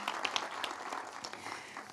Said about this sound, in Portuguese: Será que você pode aplaudir Jesus e sentar aí no seu lugar?